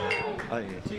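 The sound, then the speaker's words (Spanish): A couple of glasses clink together in a toast, bright, with voices talking over them. “¡Uy! ¡Salud! ahí está el hermano.”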